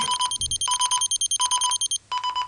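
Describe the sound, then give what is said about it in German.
An electronic out-of-range alarm from a tracker tag and an iPhone sounds in repeated bursts of rapid, high-pitched beeping, each cluster of pulses separated by brief gaps, loud with no talking. “Und wenn wir das jetzt machen, dann können Sie auch hören und auch sehen, er ist jetzt out of range.”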